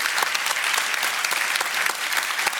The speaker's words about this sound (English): The speakers, give them applause and yourself too.